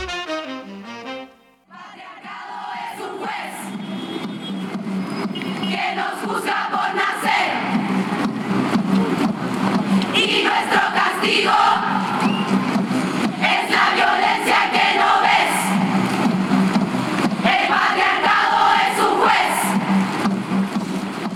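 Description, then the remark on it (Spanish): A large crowd chants in unison at a feminist protest performance by Las Tesis, many voices loud and rhythmic, holding a steady cadence for about twenty seconds after a brief, sputtering start. “estamos escuchando, me imagino que reconoces a, a, las tesis”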